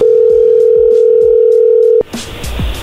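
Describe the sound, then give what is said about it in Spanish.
A steady, loud telephone tone drones for about two seconds after the other person hung up again, then cuts off abruptly into a busier burst of line noise and clicks. “colgó otra vez.”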